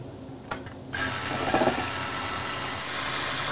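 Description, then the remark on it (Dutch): A few sharp clicks, then an electric hand mixer whirs steadily, a constant high motor whine with a faint rattle as it beats egg whites with a spoonful of sugar until stiff. No one speaks. “En dan eh, gaan we het eiwit eh, goed opkloppen.”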